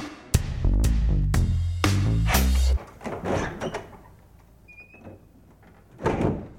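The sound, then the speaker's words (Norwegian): A door opens with a loud, low rumbling thud and heavy scraping lasting a couple of seconds, followed by softer shuffling and movement sounds as Jonas Gahr Støre comes in through the door. “Der kommer han inn døra.”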